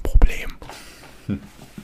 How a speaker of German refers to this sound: Ja. Und das habe ich jetzt zugeflüstert